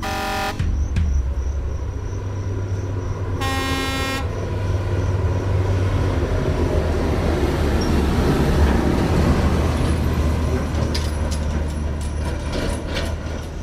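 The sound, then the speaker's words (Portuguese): A huge car-carrier truck hauling ten cars rumbles steadily down a highway from Fortaleza toward São Paulo, its heavy engine and road noise filling the scene, with two loud air-horn blasts near the start, one brief and one longer. “quero que você imagine uma carreta, um caminhão cegonha daqueles enormes, levando 10 carros na estrada.”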